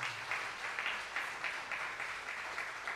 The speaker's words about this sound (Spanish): Hoy y todos los días felicitamos a nuestras madres. Así que den un aplauso a todas las madres en esta mañana del Señor.